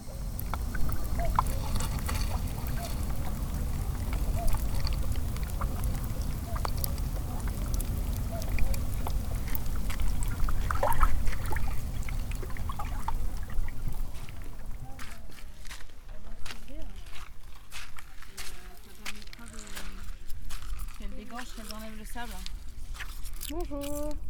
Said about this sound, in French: des clapotis. En fait c'est l'eau qui se retire et on entend le sel qui reste